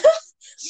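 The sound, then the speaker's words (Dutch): A single quick sneeze, fairly loud: a short voiced burst that breaks into a breathy hiss, followed by a faint exhaled rustle. “Ik moest niet zeggen eh, Gezondheid.”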